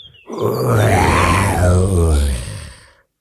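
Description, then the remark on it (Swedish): A single loud, deep bear roar, a rough, growling bellow held for about three seconds before fading out, alone, sounding like a human voice imitating the animal. “Fram kom en björn som vrålade sitt allra största vrål.”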